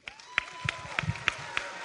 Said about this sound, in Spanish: Somos una comunidad maravillosa. Dense un fuerte aplauso.